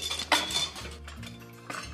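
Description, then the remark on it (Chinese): Metal kitchen utensils, including a large spoon, a big soup ladle and a spatula, clink against each other, first in a sharp, bright clatter that leaves a faint ringing tone, then a second lighter clink near the end. No voices are heard. “有这个勺子，比较大的勺子， 大汤勺， 铲子， 珍惜， 还有什么？”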